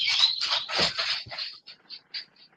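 An old dog that has trouble walking shuffles along a hard floor, dragging its paw in a rough scrape before settling into lighter, uneven clicking steps that fade off. Fairly quiet, with no voices.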